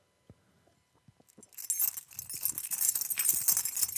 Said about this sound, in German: So, willst du jetzt das Intro klappern? Ja, mache ich. Warte.